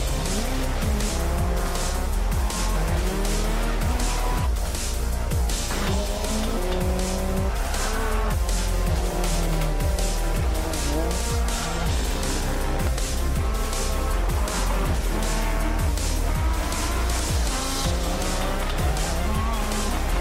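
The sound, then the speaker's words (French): A rally car's engine revs hard and shifts through gears while tires squeal and skid, a loud, continuous racing-game soundscape with no one talking. “Enfin, quoique, hein, on pourrait essayer de parler un quart d'heure d'un jeu de voiture.”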